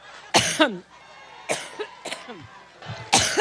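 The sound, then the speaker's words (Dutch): A run of harsh coughs from Hillary Clinton comes in irregular bursts, some paired and trailing into a hoarse, throaty rasp, with brief pauses between fits and no talking. “Ieder foutje, ieder kuchje wordt genadeloos afgestraft.”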